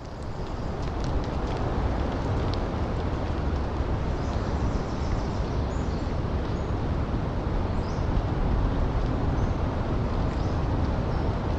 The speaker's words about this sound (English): A breeze sweeps through the trees, carrying fog so dense the moisture drips, rain like, from the needles.